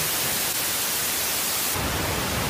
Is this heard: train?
no